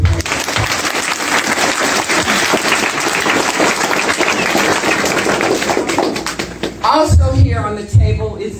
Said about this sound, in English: Give that a hand clap